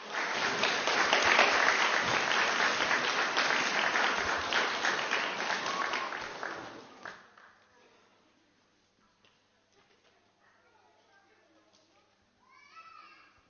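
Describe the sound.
An audience at an Advent event gives loud, dense applause for the children who performed, with children's voices mixed in. The applause lasts about seven seconds before fading quickly, followed by quiet with faint chatter and a brief voice at the end.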